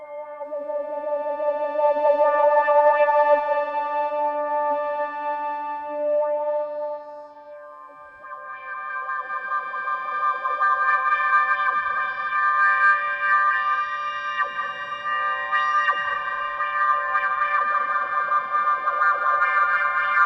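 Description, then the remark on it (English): A sustained low Hydrasynth note drenched in reverb, fed into a Phaseomatic phaser whose slow sweep speed follows the keyboard pitch; partway through, a second held note takes over, fuller and shimmering. No one speaks. “And the lower down on the keyboard I play, the slower it's going to move.”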